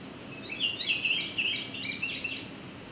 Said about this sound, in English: Oh, now I've got a clear view. So you can hear there's a second indigo bunting.